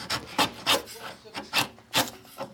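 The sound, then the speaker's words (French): A wood chisel scrapes and cuts into wood in about six quick, rasping strokes at a steady rhythm, moderately loud, with no talking. “Bravo, c'est le ciseau à bois.”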